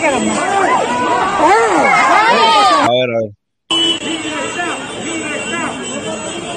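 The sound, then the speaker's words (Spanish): A large crowd shouts "libertad" (freedom) together in loud, overlapping voices, cuts out for a brief moment, then resumes a little softer while a single voice speaks briefly over it. “no sé si escuchaste desde un principio, la gente gritando libertad.”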